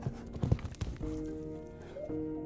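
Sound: horse hooves clip-clopping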